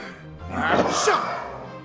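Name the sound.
loud sneeze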